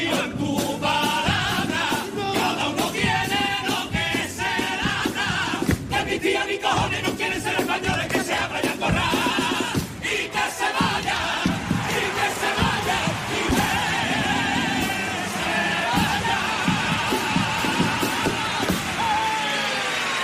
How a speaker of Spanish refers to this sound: esta es la, ovación, con gran parte del teatro en pie para este segundo paso doble de la oveja negra